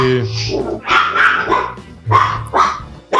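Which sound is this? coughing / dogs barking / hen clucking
dogs barking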